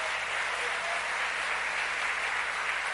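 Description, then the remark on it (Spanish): A church audience applauds the Lord steadily during a sermon, a dense, continuous wash of many hands clapping at even loudness throughout, with no distinct individual claps standing out. “Le damos un aplauso fuerte a ese Señor.”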